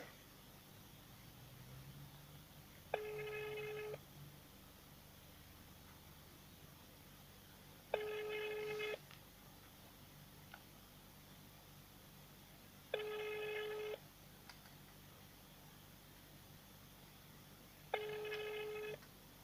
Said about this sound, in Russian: втихаря, да, перестали отвечать на телефонные звонки.